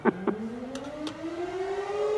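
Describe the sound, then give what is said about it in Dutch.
An air raid siren begins to wind up, its steady tone climbing slowly in pitch after a couple of short knocks at the start, with a few faint clicks over the rising wail. “Er werd erg veel gespeeld op straat, alleen iedere keer was luchtalarm.”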